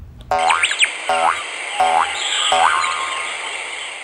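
A frog croaks four times at an even pace, each croak a loud buzzy, twangy burst with a rising, springy pitch. A faint high steady hiss continues underneath, and no one speaks.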